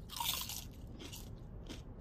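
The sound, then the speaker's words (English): Someone crunches on potato chips from a small bag during a stakeout: a loud, crisp crunch at first, then two shorter, softer bites in an irregular chewing rhythm, with no talking. “Can I get a chip? Are you serious? I bought the small bag because you said you didn't want any.”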